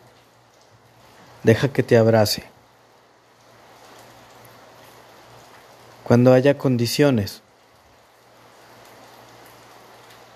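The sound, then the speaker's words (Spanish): Steady, soft rain hisses continuously in the background, a diffuse patter that fills the pauses while a person speaks two short phrases over it. “Escucha la lluvia.”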